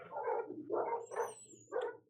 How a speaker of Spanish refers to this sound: ¿qué pasó ahí con los perros, weón?